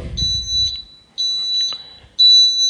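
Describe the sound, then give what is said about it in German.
A small electronic item-finder receiver gives three shrill, high-pitched beeps in steady bursts about a second apart, growing louder as its button is held down longer. The last beep comes through noticeably louder, with a brief low rumble at the very start. “Und dann wird das Gerät lauter.”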